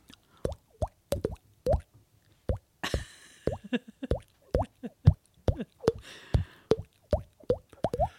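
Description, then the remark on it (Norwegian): Two people imitate bubbling with a rapid series of wet mouth plops, like a fermentation airlock releasing gas, irregular pops repeating steadily for several seconds, fairly loud, with no talking. “Det du hørte nå, var ikke plopping av en gjærlås i en vinkjeller.”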